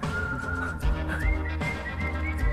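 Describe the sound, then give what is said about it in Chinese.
A person whistles a sustained, wavering melody with their mouth, gliding between notes over steady low instrumental music with a rhythmic bass pulse, during a song's interlude; the performer does the whistling. “这是你自己吹的口哨吗？”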